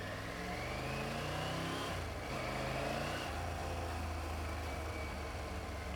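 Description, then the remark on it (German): A car engine revs and accelerates, its steady mid-pitched drone rising through two gear-like surges, loud and continuous with no one speaking. “Tut mir leid, doch Autos sind, sind dabei.”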